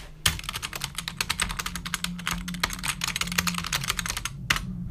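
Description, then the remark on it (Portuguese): Rapid, steady keyboard typing, a dense run of clicky keystrokes capped by one louder, emphatic key press near the end, with a low hum underneath. “Manda sempre o enter no final.”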